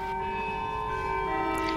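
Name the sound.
carillon bells playing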